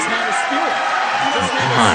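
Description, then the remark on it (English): A large audience at a political debate reacts with a dense, steady roar of overlapping voices and calls, growing slightly louder toward the end, like a restless crowd turning against a speaker. “Crowd turning against me back here.”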